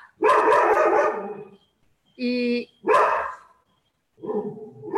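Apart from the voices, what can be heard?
dog barking repeatedly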